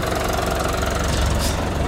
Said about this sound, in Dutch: Ehm, het is een eh, trekker die volgens mij al een tijdje meegaat. Hij ziet er helemaal prima uit.